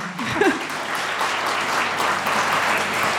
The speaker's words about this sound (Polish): Wielkie brawa.